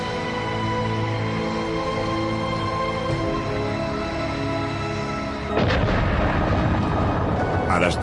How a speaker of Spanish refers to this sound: 10.28 de la noche, los motores se encienden y el R-7 despega limpiamente de la plataforma.